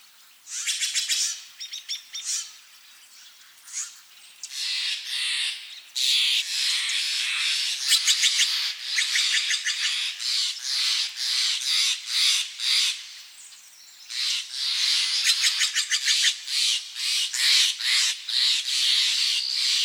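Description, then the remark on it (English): Songbirds sing continuously along the banks of the Russian River, just north of Marin County, overlapping high, bright trills and rapid chirping phrases that rise and fall in dense bursts, with no voices present. “Many songbirds called the Russian River home. Ed Herman recorded as many as he could, and here's a sampling.”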